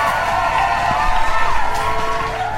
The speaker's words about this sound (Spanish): El aplauso para él, el que va a traer toda la información.